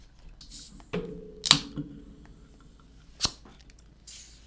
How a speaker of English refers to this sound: Okay, I'm going to open another can just for old time's sake.